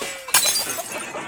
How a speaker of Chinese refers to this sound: 母鸡则跳到桌上，把杯子和盘子摔破了。